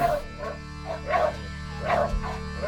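A dog barks in short bursts, about four or five yelping barks with brief pauses between them, over a steady low background hum.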